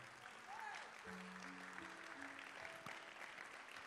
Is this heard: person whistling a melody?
no